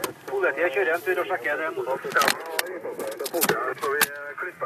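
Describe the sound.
Muffled police radio voices chatter over a steady low hum, heard from inside a freelancer's car in Trondheim, Norway, with a few brief clicks and bursts cutting through.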